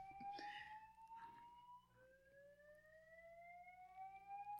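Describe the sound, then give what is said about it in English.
A fire alarm sounds continuously, its shrill electronic tone sliding upward again and again without pause, moderately loud and heard on its own with no talking. “Oh, it did it again. It doesn't stop.”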